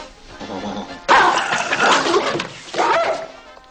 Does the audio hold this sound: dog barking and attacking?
yes